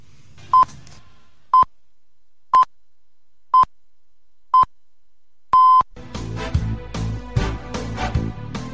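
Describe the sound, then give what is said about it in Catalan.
Six evenly spaced electronic beeps, one per second, the last held longer, a radio station's news signal interrupting the afternoon programming, followed immediately by a burst of full, loud music. “Les 6 i 51 minuts ens veiem obligats a interrompre la programació de la tarda, la sintonia de Tarragona Ràdio”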